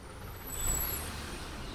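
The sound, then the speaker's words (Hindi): A car brakes to a stop at a gate, a thin high brake squeal riding over a steady low engine rumble that swells briefly and then settles. “मेरी गाड़ी गेट के पास आकर रुकी हम पहुंच गए थे”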